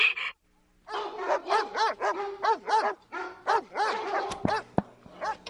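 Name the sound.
dogs barking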